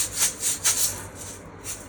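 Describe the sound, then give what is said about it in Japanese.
Cute apple-shaped toy maracas, bought at a 100-yen shop, shaken in a handful of quick, uneven strokes, each a bright, hissy rattle of beads, steady in loudness and with no voices over them. “この、リンゴのマラカス、かわいいやつ。”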